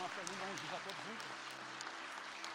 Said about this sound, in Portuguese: Amém. Aplauda o Senhor Jesus. Né?